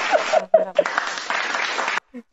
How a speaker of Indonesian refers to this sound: Ya, tepuk tangan mana tombol tepuk tangan? Tepuk tangannya semua.